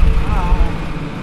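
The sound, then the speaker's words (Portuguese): A large tractor preparing land for planting an almond orchard on a small hill some tens of kilometres from Beja, in the Baixo Alentejo, rumbles steadily, a loud, deep, continuous drone with a faint tonal whine rising briefly above it. “recebe-nos num trator dos grandes com que prepara um terreno para plantar um amendoal num pequeno monte a umas dezenas de quilómetros de Beja.”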